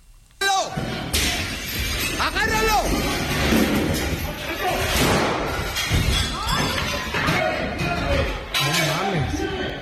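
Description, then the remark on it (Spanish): A loud crash breaks out suddenly near the start, followed by continuous clattering, banging and commotion, with agitated voices and shouting mixed in throughout, as a man at a court hearing in Chapala, Jalisco, throws a chair and runs off. “Se está grabado el momento en el que el señor se para de la audiencia, avienta la silla y sale corriendo disparado.”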